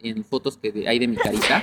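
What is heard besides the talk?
sneeze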